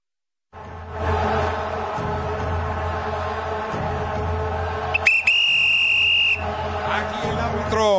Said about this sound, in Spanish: Inicia, nos da el pitazo inicial para arrancar este medio tiempo.